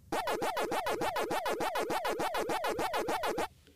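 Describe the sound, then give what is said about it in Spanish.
The Pac-Man arcade game character's chomping 'waka waka' effect, a loud electronic tone sweeping up and down about a dozen times in quick, steady rhythm, then stopping abruptly. “Que la creencia popular es que, como tú decías... Es guaca guaca. Pero no es guaca guaca.”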